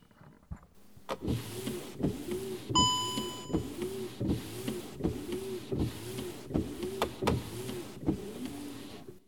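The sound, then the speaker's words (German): Car windshield wipers sweep back and forth in a steady rhythm over a continuous electric motor whir, each pass ending in a soft thump, with a brief chime early on. “Hier habe ich noch zwei mechanische Geräusche für euch aus meinem Auto. Hier die Scheibenwischer.”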